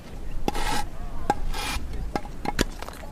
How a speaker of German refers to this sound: Der Stein könnte Schaumstoff sein, denn er ist sehr witzig mit lauter Löchern und hört sich auch so ein bisschen wie Schaumstoff an, wenn man drüber streicht. Ich feile jetzt ein Stück von dem Stein ab, um mir daraus einen Anhänger zu machen.